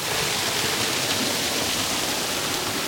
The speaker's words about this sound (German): So ähnlich ist das hier ausgelegt. Wir haben rechts und links Wasser. Ich muss gerade ein bisschen aufpassen hier.